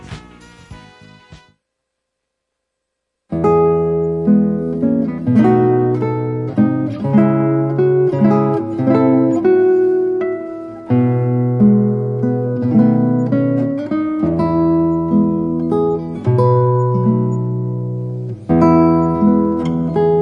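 An instrumental guitar performance of the Korean song 'Oppa Saenggak', with plucked notes ringing and decaying in a steady, gentle melody. It plays fairly loud after a short opening strum and a brief silence. No voices.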